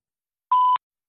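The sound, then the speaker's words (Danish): A single short electronic beep, a steady pure tone lasting about a quarter second, clean and isolated with silence before and after, the tone signaling the start of a voicemail recording after a Danish greeting asks the caller to leave a message after the tone. “Indtal din besked efter tonen.”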